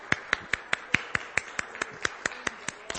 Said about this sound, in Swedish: Ja, då kan vi klappa i händerna och tacka Gud för.